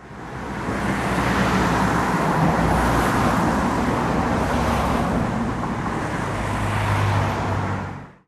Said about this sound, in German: Leider wurde der Erholungsfaktor durch den anwachsenden Verkehr auf der Straße immer kleiner.